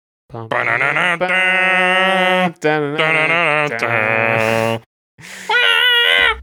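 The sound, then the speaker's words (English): A voice imitates the distorted opening guitar riff of a 1968 song: loud, buzzing, wavering sung notes in three bursts with short pauses between, the final phrase rising higher and thinner. “Yes, comes screaming in with that with that riff.”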